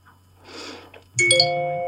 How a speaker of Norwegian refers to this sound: Oi sann. Det var litt flaut. Der fikk jeg melding, gitt. Lydløs.